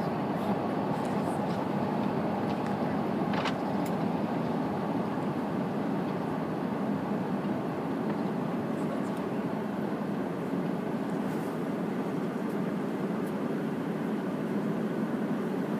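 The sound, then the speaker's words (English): A steady, enveloping airplane cabin roar during flight, a dense low rumble and airy hiss that holds constant throughout, with only a faint brief tick partway through. “the sound on the airplane, like most other things on the airplane, is claustrophobic, is maybe the word.”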